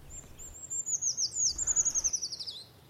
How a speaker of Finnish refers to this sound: Puukiipien ja pajulinnun laulut muistuttavat toisiaan, mutta jos näin huhtikuun alkupuolella kuulee pajulintumaista laulua, voi olla varma, että kyseessä on puukiipiä.